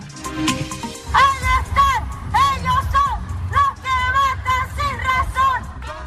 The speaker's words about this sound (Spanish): Así se escucharon las protestas en el centro de Santiago de Chile este martes en ocasión del tercer aniversario del estallido social que estalló en 2019.